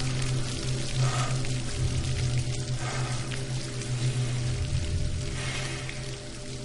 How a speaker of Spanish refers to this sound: El agua rebosa cayendo sobre el cuerpo.